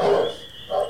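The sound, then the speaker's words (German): A coworker's dog makes two short, rough vocal noises, one at the start and another just before the end, with a faint steady high tone in the background and no talking. “Oh, da ist auch ein Hund.”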